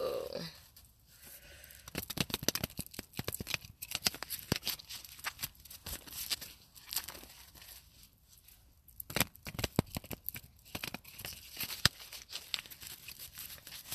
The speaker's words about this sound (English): Okay, so I'm going to shuffle this uh, three more times we'll get started. Alright, last shuffle.